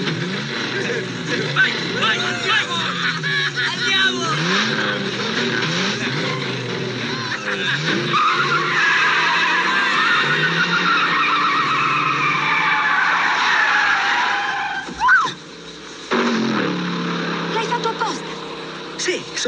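Racing cars roar past with revving engines while tires squeal in a long, loud skid through the middle, followed by a sharp thump and more engine noise.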